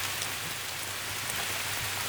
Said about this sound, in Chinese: 不知道从什么时候，已经开始下雨了。